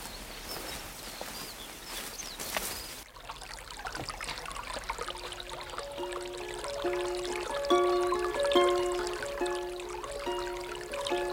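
spring water flowing

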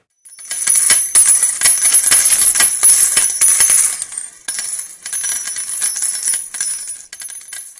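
coins jingling

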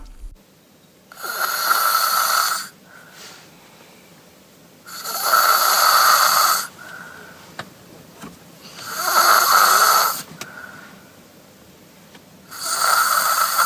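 child snoring

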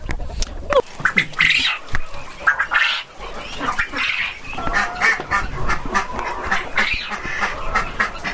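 duck quacking

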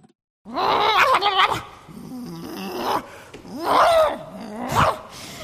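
dog barking and growling

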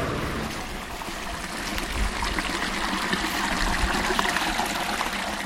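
small stream water trickling

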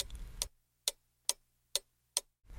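clock ticking

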